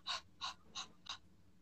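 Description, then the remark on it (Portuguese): A person imitates a dog panting, as an example of a dog's facial body language, with four quick, breathy huffs in a steady, even rhythm. The huffs are moderately loud, with no talking. “Então, ainda pensando no rosto, do, do, né, na carinha do, dos anjinhos, é o, o arfar, que é esse.”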